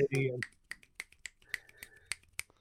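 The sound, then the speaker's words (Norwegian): Fingers snap about eight or nine times in a steady, roughly even rhythm, each snap a sharp, bright crack. A brief burst of voice comes at the start before the snapping continues alone. “Jeg som så radioresepsjonen og knipsa litt.”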